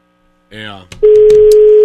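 A short burst of voice gives way to a loud, steady telephone ringing tone that holds without a break to the end, like a call waiting to be picked up.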